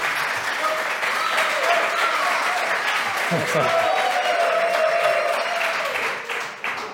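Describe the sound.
Sustained audience applause welcoming a guest, a dense wash of many hands clapping at steady volume for several seconds, with a faint voice or two briefly audible underneath before it begins to thin out.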